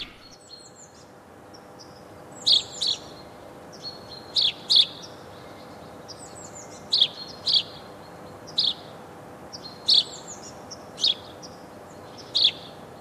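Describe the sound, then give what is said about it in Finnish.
A marine weather report signature tune played at 18.50, made of bright, high bird chirps: paired chirps repeat at regular intervals over a soft, steady background hum, with no talking. “Varpusen kerran me menemme merisää tunnukseen.”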